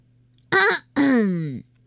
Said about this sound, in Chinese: 鹦鹉清了清嗓子，挺起了胸脯。